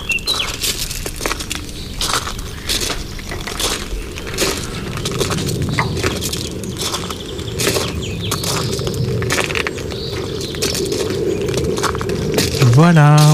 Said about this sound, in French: Alors où que tu sois, ferme les yeux, assieds-toi bien confortablement, écoute les oiseaux et laisse tes rêves s'envoler